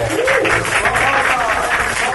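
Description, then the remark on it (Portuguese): Steady, dense applause from a crowd for the TV network Rede Manchete, loud and continuous for a couple of seconds, with faint voices mixed in underneath the clapping. “então vamos lá, uma salva de palmas para a Manchete.”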